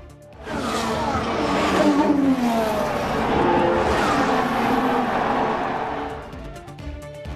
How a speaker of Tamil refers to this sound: Spain formula one car பந்தயத்தில் மின்னல் வேகத்தில் சீறி பாய்ந்த வீரர்கள்